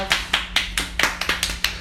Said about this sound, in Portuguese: Palmas.